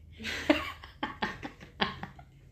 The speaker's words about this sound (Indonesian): misalkan misalkan gue batuk gini